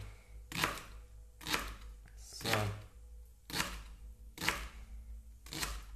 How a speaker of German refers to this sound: Und da schneidest du jetzt feine Ringe raus.